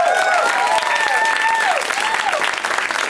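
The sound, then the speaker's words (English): Steady, loud applause from the audience at the end of Cameron Esposito's comedy show, kept going for all the comedians of the night, fills the whole moment: a dense wash of clapping with a few high whistles sliding up and down above it. “In fact, why don't you keep it going for everybody you saw tonight?”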